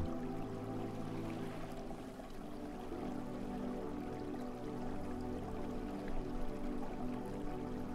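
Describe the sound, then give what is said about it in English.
Ocean waves lap steadily on the sand of a beach shore at night, at an even, moderate level, a soft continuous wash of gentle waves without breaks or voices. “The waves on the ocean have also settled down, now lapping gently on the glistening sand on the beach shore.”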